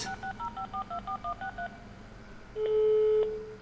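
A rapid run of about a dozen short, clipped telephone keypad beeps as someone dials a call, followed after a brief pause by a longer, louder steady tone, as on a line connecting. No voices.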